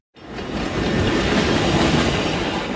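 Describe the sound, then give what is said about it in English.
A commuter train rumbles past at street level through Ravenswood Manor, a leafy residential neighborhood in Albany Park on Chicago's Northwest Side. Its wheels clatter steadily on the rails in a loud, continuous roar that holds for a few seconds with no voices. “It centers around a popular playground, and the train runs at street level.”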